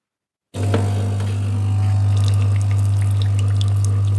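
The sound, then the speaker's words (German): A fully automatic coffee machine's pump starts abruptly with a steady low hum while fresh coffee streams and drips into a small cup, a continuous whir with splashy trickling on top and no talking. “da packe ich die jetzt mal drunter und würde jetzt hier die kleine Tasse mal auslösen.”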